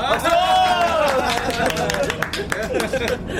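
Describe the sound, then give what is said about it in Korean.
Members of a fishing club setting off on a night fishing trip clap together in a quick, uneven patter of sharp hand slaps, starting under a rising, cheering voice and continuing as scattered applause with chatter mixed in. “그런 의미에서 다 같이 박수!”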